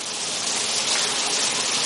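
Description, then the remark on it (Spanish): A priest showers in a bathroom, the shower running steadily, its continuous, bright hiss of falling water staying even and unbroken for the whole couple of seconds, with no voices. “El cura se ducha de espaldas a ella.”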